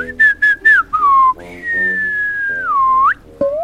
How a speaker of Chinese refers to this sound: 弗兰熊心虚地转过头，吹起了口哨。